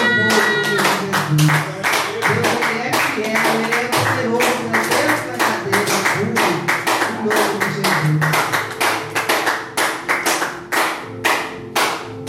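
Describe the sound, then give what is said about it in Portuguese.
An audience claps for the Lord steadily for about twelve seconds, a dense, fairly rhythmic run of sharp hand claps, loud throughout, with voices murmuring and calling out underneath. “E assim eu te agradeço a minha rica oportunidade e palmas ao Senhor.”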